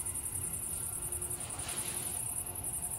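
Crickets chirp in a steady, dense high-pitched trill throughout, with a low rumble of traffic from a bypass road underneath; a quiet nighttime outdoor scene with no talking.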